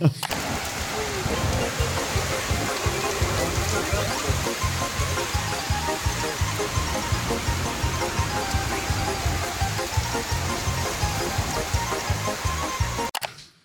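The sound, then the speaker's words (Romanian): Hail pelts down steadily outside, a dense, constant clatter of countless tiny impacts with a heavy rushing hiss, holding loud and even throughout before cutting off abruptly at the end. “nici în Ia Flow cu piatra afară, cred. Oh my God, se aude.”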